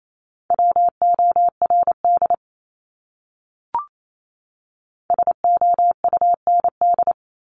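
Morse code tones at 28 wpm from a practice set of the top 200 words: a steady, high-pitched beep keyed into rapid dots and dashes, two quick words separated by a pause with a single soft click between them.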